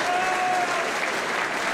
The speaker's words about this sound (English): Young gets a good round of applause, as he should.